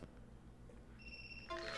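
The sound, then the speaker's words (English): A phone alarm, one of several set to go off every three minutes: a steady high electronic tone sounds, then shifts into a cluster of lower chiming tones, fairly quiet over a low background hum. “oh, look at my alarm.”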